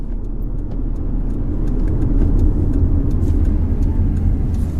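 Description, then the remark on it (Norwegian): A car engine hums steadily with a deep low rumble, swelling slightly midway as the car drives over to park by an apartment block, then easing off; no voices are heard. “Bare parkere der borte, sikkert? Ja. Vi kjører bare bort her, vi.”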